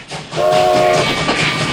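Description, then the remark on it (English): A moving train rumbles loudly and steadily on the rails, with a brief whistle-like tone sounding near the start over the continuous roar. No voices. “Just so there's no confusion, I will not be leaping off of this train, climbing onto the roof of this train, or dangling from any part of this train.”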